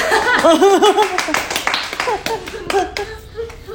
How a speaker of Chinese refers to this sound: 我觉得其他我们都在做正确的事情，给自己鼓掌。